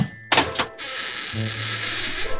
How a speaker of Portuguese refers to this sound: Então, ela ouviu o barulho da porta abrindo.